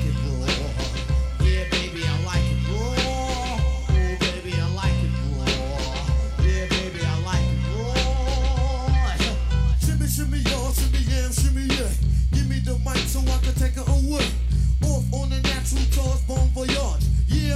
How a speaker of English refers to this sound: So I'll just play other music instead.